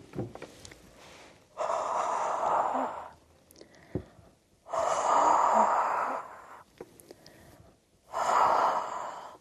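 Three long, heavy breaths pushed out slowly onto a gilding surface to make it sticky again for gold leaf, each a loud breathy rush of air separated by short quiet pauses, with no talking.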